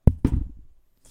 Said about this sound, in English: That was the sound of an exploding Achilles tendon. I'm not even kidding. His right leg, the Achilles tendon, went boom.